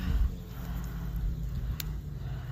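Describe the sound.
A person imitates heavy breathing, as if coming from under a bed, with a low, raspy, rumbling exhale that drags on for a couple of seconds, over steady background noise, recorded outside.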